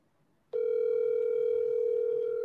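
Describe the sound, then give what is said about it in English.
An outgoing phone call's ringing tone, a call to the caller's dad, starts abruptly after a brief quiet moment and holds as a steady, loud electronic hum for about two seconds, with no voices. “I am going to give my dad a call.”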